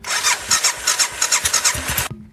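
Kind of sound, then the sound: vehicle, motorcycle engine starting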